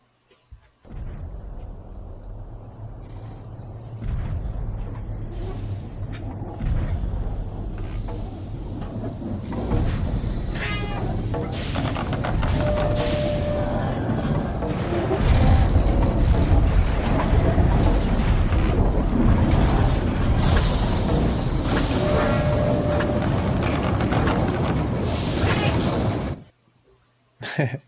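The sound design of a huge walking castle moving in a film: it lumbers along with deep rumbling, clanking metal and hissing steam, a dense, continuous wall of creaks, thuds and grinding gears that swells louder before cutting off abruptly.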